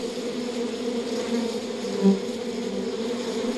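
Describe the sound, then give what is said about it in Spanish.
A steady, dense hum of many honeybees buzzing in an opened hive, layered drones rising and falling slightly, with a brief louder swell as one bee passes. No voices. “Zumban de colmena en colmena, algunas más grandes que otras.”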